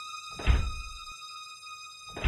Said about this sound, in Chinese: 在一个月黑风高。伸手不见五指的晚上，我听到门外传来有节奏的敲门声。我打开门，却没有看到人。刚回来睡一下，又听见有人敲门。